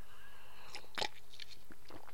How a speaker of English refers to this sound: excuse me, just taking a sip of my coffee,